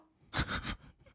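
A dog gives a quick run of three breathy, muffled huffs, short puffs of air in close succession, fairly loud against an otherwise quiet background with no talking.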